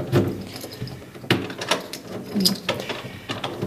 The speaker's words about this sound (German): Schauen wir mal, ob die Damen daheim sind und ob sie uns reinlassen. Jetzt klopfe ich erstmal. Schauen wir mal.